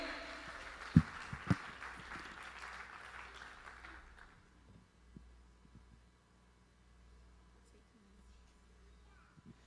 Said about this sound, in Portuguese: Pode aplaudir o Senhor, Aleluia.